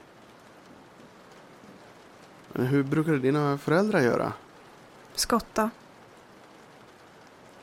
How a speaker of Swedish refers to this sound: Det regnar rätt så kraftigt. Ja, det är ju inte direkt något vinterväder för att vara december.